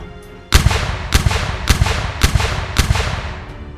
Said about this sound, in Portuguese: Balas de canhão voaram de todas as direções, destroçando os três navios.